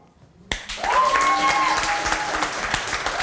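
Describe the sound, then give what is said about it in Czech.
An audience bursts into applause to vote for the defence, a sudden, loud wash of many hands clapping that holds steady for a few seconds, with a few voices or whistles rising above the noise. “Hele, vy nemusíte tleskat, ale bylo nutný bučet.”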